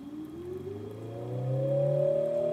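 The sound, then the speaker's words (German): A synthetic engine-like hum from an electric motor, given an added function as an acoustic sound source besides its rotation, rises steadily in pitch, with layered harmonic tones, imitating a car accelerating. It is fairly loud and grows slightly louder, with no talking. “Und was wir jetzt machen, ist, wir fügen dem Motor zusätzlich zu seiner primären Drehfunktion eine neue Funktion hinzu und das wäre eine akustische Geräuschquelle.”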